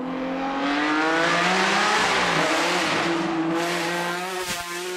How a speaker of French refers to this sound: le premier modèle de Ferruccio Lamborghini est un succès retentissant, et les premiers véhicules équipés d'un moteur V12 Bizzarini rugissant, nommé en l'honneur de leur concepteur, commencent à être commercialisés.